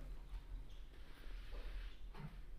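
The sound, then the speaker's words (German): A front door is being opened for a food delivery driver after the doorbell rang, with a few soft clunks and a brief scraping creak near the end over a low background rumble, fairly quiet, with no one talking. “Die Tür bei dir ist auch so laut, ne?”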